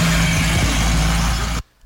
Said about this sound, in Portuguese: Aqui é só um caminhão de lixo. Ele fez uma. É uma filmagem.